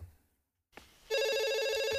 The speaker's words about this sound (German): Telefon. nee, letztes Mal bin ich rangegangen. Jetzt gehst du.